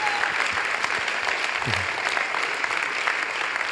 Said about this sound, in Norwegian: Jeg syns dere skal gi ham en, en heidundrende applaus.